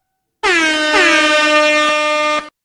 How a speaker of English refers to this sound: Let's get two more air horns right here.